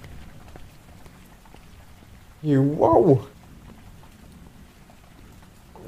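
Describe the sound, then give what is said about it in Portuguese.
Steady rain falls throughout, a soft, even hiss with faint patters, as a person walks in it after their car stopped, and a person briefly exclaims partway through. “Tá chovendo mesmo.”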